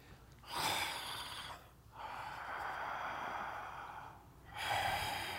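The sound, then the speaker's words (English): A voice imitates the heavy, gruff breathing of a tall, grizzly-looking man in an elevator: three loud, raspy breaths, the middle one drawn out, with short pauses between them and no words spoken. “he was breathing really heavy. He was kind of breathing like,”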